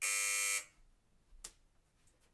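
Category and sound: household object, doorbell buzzer ringing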